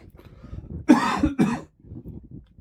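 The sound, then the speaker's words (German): A person coughs, two harsh bursts in quick succession, loud against faint low background noise before and after; no one speaks. “So, jetzt muss ich einmal husten.”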